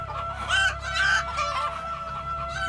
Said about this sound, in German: Lebende Hühner in Stiegen, Fässer, Flaschen, Duft von kaltgepresstem Sonnenblumenöl und Knoblauch.